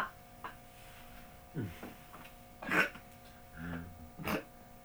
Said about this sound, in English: what are you giggling at? You got the hiccup. so cute.